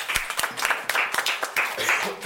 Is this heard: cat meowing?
no